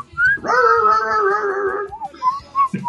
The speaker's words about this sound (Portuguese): O gato ou o Kiko? É. é o meu Godines é o cachorro, né?